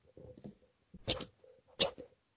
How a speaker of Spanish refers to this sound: No, tenía estos encendedores zip. ¿Cachai? ¿No es que suenan? ¿Los sí. Suenan. Sí, pues esos que suenan. Sus cuadraditos típicos de película gringa que... Ya, sí, sí, sí, sí. Ya, es encendedor. Ya mira, mira, para, que escuche.